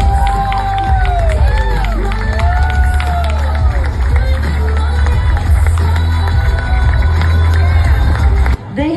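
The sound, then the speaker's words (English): A large crowd gives Kari Lake a hero's welcome, cheering and shouting loudly and continuously, with whistles and rising and falling whoops over a dense roar of voices, ending abruptly after about eight and a half seconds. “Listen to this, and she got the hero's welcome.”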